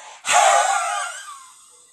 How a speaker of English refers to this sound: You could do like a silent scream in the bathroom, like um, uh, like just uh, uh, you open your mouth really wide and you do a big exhale as if you're gonna yell, but you don't. You just exhale.